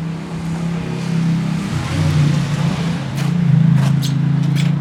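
Street ambience on Nowa Street in Łódź, Poland, dominated by a steady engine rumble that shifts in pitch as vehicles move past, over a wash of traffic noise with a few sharp clicks near the end.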